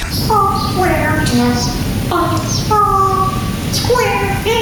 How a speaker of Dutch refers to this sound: Oh! Ja, eh, inderdaad. En heel goed gefloten ook door de papegaaien.